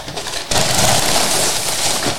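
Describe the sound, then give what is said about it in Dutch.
Packing paper rustles and crinkles loudly as a very large box is unpacked in a living room, a dense, continuous crackling that starts abruptly after a brief quieter moment and carries on steadily with no voices. “Er zit, eh, even kijken, er zit een heleboel papier in.”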